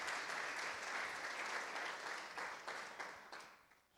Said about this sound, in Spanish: Y el resultado que había en la primera iglesia es lo que estamos evidenciando en la comunidad de Casa Evidencias y eso merece un aplauso al Señor.